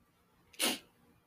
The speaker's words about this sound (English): Excuse me, I got to sneeze real quick. Bless me.